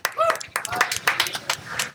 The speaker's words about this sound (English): So that's a that's more, applause than I get than a Thanksgiving dinner at home. So thank you, I appreciate that.